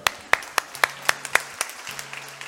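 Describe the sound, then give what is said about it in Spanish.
Brief, sparse applause for a person who answered a quiz question: roughly eight sharp, distinct claps at a fairly steady pace, over a faint low hum, with no one talking. “Un aplauso, por favor.”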